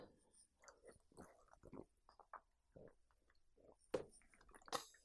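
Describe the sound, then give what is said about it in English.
Someone drinking water: soft mouth and liquid noises, then two distinct gulping swallows near the end. Faint murmured vocal sounds come before them. “Let me get some water here.”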